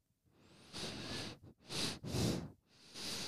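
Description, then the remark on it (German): Heavy breathing through a whistling nose in several rough, hissing bursts, with a faint thin whistle rising at the start. No one talks. “Ich möchte mal atmen mit meiner Nase.”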